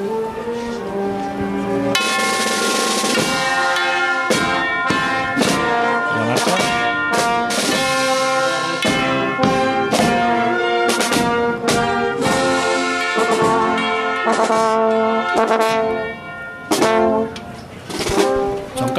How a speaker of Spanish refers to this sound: Campana. Bueno, pues. Así han sonado estas campanas.